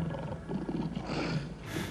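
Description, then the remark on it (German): A lion roars in a deep, rumbling, sustained growl lasting about two seconds, loud, with no voices present; the lion is in a lions' den. “Daraufhin befahl der König, Daniel in die Löwengrube zu werfen.”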